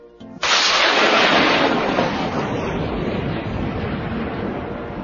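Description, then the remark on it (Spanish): A sudden loud crack of thunder bursts in after a brief quiet moment, then rolls into a heavy, sustained rumble that slowly fades over several seconds, with no voices. “Con el calor del sol, se va evaporando esa agua que por último se convierte en nubes y en última síntesis, en energía. En rayos y truenos.”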